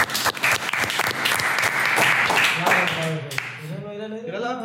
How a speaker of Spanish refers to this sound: Un aplauso, chingada.